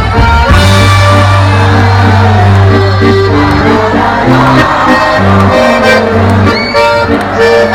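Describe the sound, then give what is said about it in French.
A crowd of voices in Ivry-sur-Seine imitates cicadas together, producing a loud, continuous buzzing chorus of shrill, raspy tones that swells and overlaps for several seconds. “Ah, les cigales sont rouillées. Elles ont perdu l'habitude, c'est normal. Mais voilà qu'elles se réveillent avec un peu d'entraînement et qu'on les entend plus fort.”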